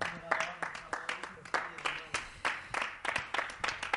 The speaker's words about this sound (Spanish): Ole, un aplauso ahí, ¿no?